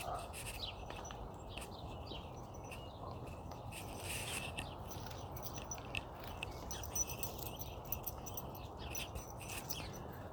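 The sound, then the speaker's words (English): Birds chirp in the morning in quick, scattered bursts throughout, thin and fairly faint, over a steady low background hum with no one talking. “Oh, listen to those birds again.”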